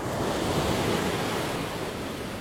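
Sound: sea waves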